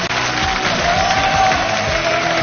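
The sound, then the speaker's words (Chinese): A dense, steady wash of audience applause fills the whole stretch, loud and continuous with a few faint cheers rising out of the clapping, and no one speaking over it; the audience of the Chinese TV lecture programme 开讲了 (Open Lecture) applauds to thank Cai Lan for his talk. “再次掌声，感谢蔡澜先生给我们带来的开”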